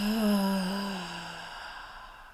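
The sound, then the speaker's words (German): A single long, voiced exhale through the mouth after a deep breath in through the nose, a deep audible sigh that starts fairly loud and trails off gradually over a couple of seconds, heard alone. “Und ich mag, dass du jetzt zum Beginn der Folge, sofern du nicht gerade Auto fährst, mal kurz die Augen schließt, dich mal bequem hinsetzt und dann mal einen tiefen Atemzug nimmst, durch die Nase ein mit einem Geräusch durch den Mund aus.”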